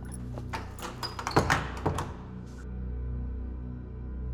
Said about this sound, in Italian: Ti ci vuole qualche minuto per riconoscere il vecchio Leonard, il tuttofare del teatro, che si avvicina armeggiando con un grosso mazzo di chiavi alla porta del teatro e te la socchiude.